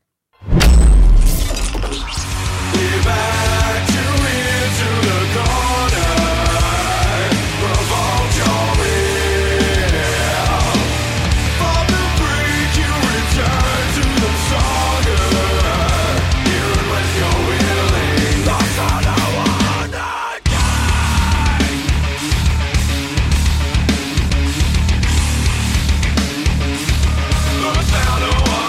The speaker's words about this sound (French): Je vous propose qu'on s'écoute un titre de ce deuxième album. Attention, vous n'êtes pas prêts.